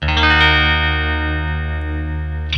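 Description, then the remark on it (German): Heavy distorted guitar power chords strummed through a digital octaver pedal, a thick sludgy wall of sound sustained for a couple of seconds, loud and droning, with a fresh strum right at the end. “das sind eigentlich alles Power Chords, die wir durchschrubben.”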